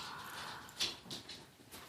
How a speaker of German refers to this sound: Wenn ihr das Getrappel jetzt hört, das ist Anouk. Und die läuft mal wieder hier ganz ungeduldig durch die Gegend. Das ist meine Hundedame, ähm, mein Seelenhund.